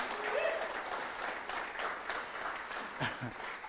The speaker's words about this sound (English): Um, our tech team, y'all, is second to none. So would y'all give them a hand clap? They don't get a lot of praise.